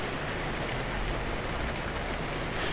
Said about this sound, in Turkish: Ee, yağmur umarım sesimi bastırmıyordur.